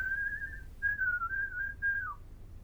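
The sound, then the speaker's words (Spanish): A person whistles a bird-like call: a steady clear tone, a brief pause, then a gently warbling phrase that dips downward at the end, with no talking. “Silbó como un pájaro en la enramada.”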